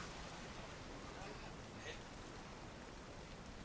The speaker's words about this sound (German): Am Tag 15 kommt ihr zurück nach Port Nyansaru. Es regnet nur ein bisschen und ihr kommt dort wieder an, sicher eben in dieser größeren Stadt.